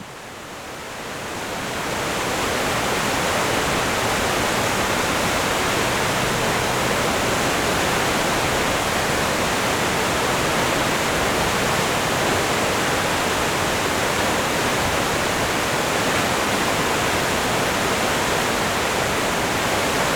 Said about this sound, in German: Innerhalb dieser kurzen Strecke überwindet der Fluss wild tosend und aufschäumend ein Gefälle von über 150 Metern. Von dem dabei entstehenden, einprägsamen Rauschen hat das Gesäuse seinen Namen